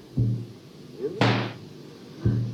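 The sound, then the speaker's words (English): A door handle rattles with a brief squeak, then the door swings open with a short rushing creak, framed by dull low thumps before and after, moderately loud. “The footsteps halt, the handle turns.”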